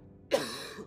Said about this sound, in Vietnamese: Theo sau đó là tiếng ho khụ khụ của trưởng bản Làm cho mọi người bình tĩnh trở lại